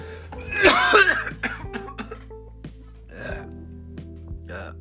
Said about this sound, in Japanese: やべなんかもうこんな聞き苦しい僕が咳してるのを一回切って取り直したいところですけどちょっともう元気がないので許してください。